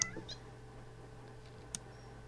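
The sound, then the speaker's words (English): A few brief, faint cat meows: a short cluster at the start and one more chirp-like meow later, over a quiet, steady background hum with no talking. “Cats, leave us for a minute.”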